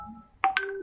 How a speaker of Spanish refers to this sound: Me están llegando mensajes, perdón por los pitidos, lo voy a ver si lo puedo apagar, eh, porque me están llegando por el móvil y por el ordenador, que es donde estoy grabando.